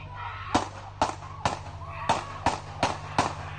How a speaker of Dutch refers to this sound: Op het ogenblik dat hij in zijn auto wil stappen en naar iets wil grijpen, mogelijk een mes, schiet de politie hem zeven keer in de rug.